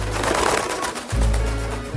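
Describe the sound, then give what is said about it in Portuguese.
A dove coos in two low, throaty phrases separated by a brief pause, moderately loud, with no voices present. “Mas para ter a certeza de que a terra já estava seca e de que já podiam sair da arca, Noé primeiro libertou da arca um corvo e depois uma pomba.”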